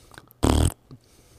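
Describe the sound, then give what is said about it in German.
A single loud, buzzing raspberry blown with the mouth into a microphone, imitating a fart, lasting about a quarter second with a low rattling tone, followed by a faint short breathy sound. “Wie wär's mit ins Mikro furzen damit anfangen?”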